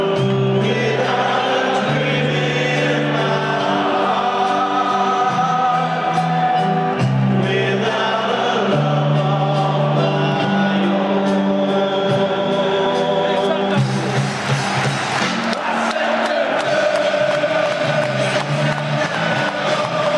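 A large crowd of football fans sings a slow, drawn-out stadium chant in unison, the melody holding long notes over steady crowd roar that swells louder toward the end.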